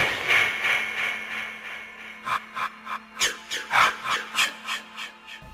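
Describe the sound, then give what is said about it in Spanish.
The signature whispered 'ki ki ki, ma ma ma' effect of a 1980 horror film, referencing the words 'kill her, mommy': a hissy wash gives way to a quick series of sharp, rasping whispered syllables pulsing rhythmically, eerie, with no one talking. “es una referencia a lo que recitaba Pamela Borges al final de la primera entrega, Kill Her Mami, Mátala Mami”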